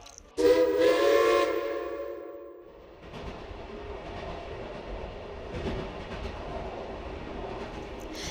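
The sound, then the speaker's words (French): A train in Russia sounds a loud, steady horn blast lasting about two seconds, then pulls away with a continuous rumbling, clattering roll of wheels on rails that carries on to the end. “Et jetant un dernier regard à la faucille et au marteau, ils embarquent dans le train et repartent aussitôt.”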